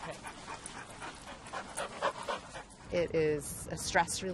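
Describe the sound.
A dog pants in quick, breathy bursts, with a few short whimpering yelps near the end, while a person talks over it.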